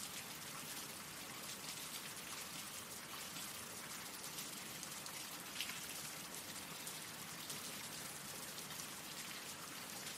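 Steady rain falls continuously, a dense hiss of countless drops pattering on surfaces, even and unbroken throughout with no voices.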